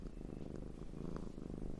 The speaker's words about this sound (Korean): 그리고 마침내 허벅지에 매달려서는 고롱고롱 기계음 같은 소리를 냈다. 나중에야 그게 골골송이라는 걸 알았다.